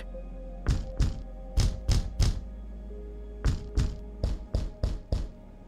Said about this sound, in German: Mama hat mir euer geheimes Klopfzeichen gezeigt. Ach was, zeig mal.